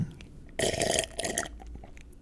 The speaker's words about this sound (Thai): He or she is sucking on a straw and he or she might be slurping นั่นคือเสียงที่คุณได้ยินอยู่ตอนนี้นะครับ